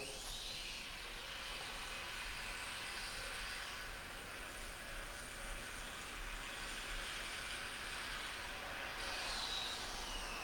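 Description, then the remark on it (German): An electric drill whirs steadily, a continuous rushing, hissy drone that holds without pause for about ten seconds, with no one speaking. “Das ist, ich meine, Bohrmaschine oder Espressomaschine ist eigentlich der gleiche Sound.”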